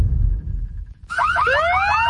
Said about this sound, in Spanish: Sabemos que las bocinas y los ruidos son molestosos.